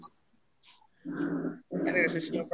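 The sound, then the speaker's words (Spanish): Pet dogs whimpering and growling on a rainy day, two sustained whiny, throaty bursts after a brief quiet moment, the second louder and higher-pitched than the first. “No, güey, es que mis perritos están tocando la”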